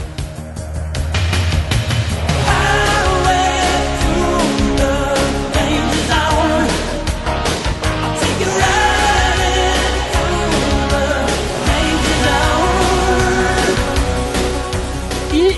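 An 80s rock song from a film soundtrack plays loudly and steadily over the scene where Maverick rides a motorcycle. A driving drum beat, heavy bass and layered guitars and synths fill the whole stretch, with no talking over it.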